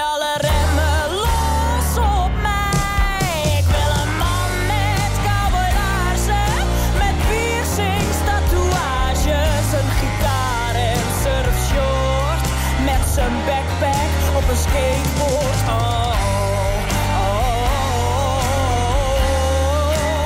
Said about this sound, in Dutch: Het is weer uitermate raak, dit nummer.